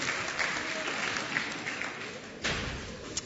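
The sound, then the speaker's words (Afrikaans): An audience claps for the men who raised their hands to help, in steady, dense applause, a broad crackling wash of many hands with a few sharper claps standing out, holding an even loudness throughout. “okay, gee hulle 'n lekker hande klap toe.”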